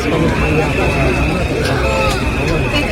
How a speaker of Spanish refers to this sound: dos concentraciones, una a favor, otra en contra de la monarquía, justo se celebraba justo delante del Museo Dalí, donde se celebraba este acto. Cada una de las concentraciones ha reunido a 150 personas.